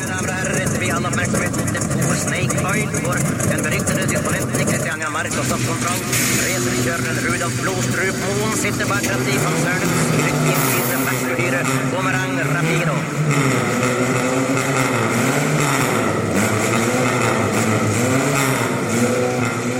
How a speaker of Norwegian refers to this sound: Han kjører én kilometer i timen, og det er rusing! Han svidde opp kløtsjen sin.